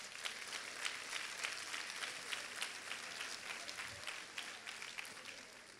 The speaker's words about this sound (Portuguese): Pode aplaudir ele.